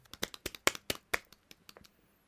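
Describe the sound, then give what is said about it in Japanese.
A short burst of hand clapping welcoming the main speaker of a talk, about fifteen sharp, quick claps in an uneven rhythm that thin out and fade after a couple of seconds, with no voices. “拍手。”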